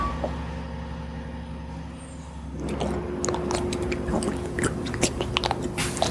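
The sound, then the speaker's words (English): A delivery truck's engine rumbles steadily as it arrives to drop off supplies, then gives way to a burst of air-brake hissing, clattering and crunching noises as the truck comes to a stop. “Every day, trucks drop off our supplies there. I believe that's them right now.”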